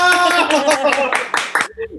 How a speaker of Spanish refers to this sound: parezco que estoy en drogas porque me aplaudo a mí mismo, pero no le hace. Es muy bonito aplaudirse.